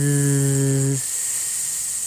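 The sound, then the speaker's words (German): In a German speech exercise, a voice holds a steady, buzzing voiced 'bee S', like a low hum under a bright hiss, for about a second, then drops the buzz and continues as a plain, unvoiced hissing S. “Wenn ich die Übungen dazu mache, also Unterschied zwischen normalem, stimmlosen S und dem Bienen S”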